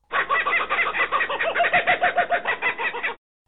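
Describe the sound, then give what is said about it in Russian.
A kookaburra's laughing call: a loud, continuous cackle of rapid, rhythmic hooting notes lasting about three seconds, with no voices. “Ну, надо сказать, что смех Кукабары очень смешной.”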